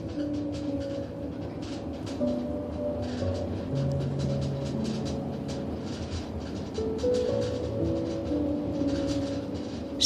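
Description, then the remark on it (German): A train rumbles quickly and steadily over the rails, a dense continuous roar with faint rhythmic clatter and sustained tonal squeals, even in loudness throughout. “Du versuchst dich zu beruhigen und hörst dem Geräusch des Zuges zu, der flink über die Schienen rauscht.”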